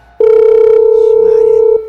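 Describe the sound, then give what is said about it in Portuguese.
A telephone ringing tone from an unanswered call: one long, steady, mid-pitched beep lasting about a second and a half, loud and unbroken, with faint voices murmuring underneath. “Vamos ligar de novo.”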